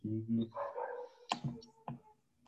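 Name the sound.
dog barking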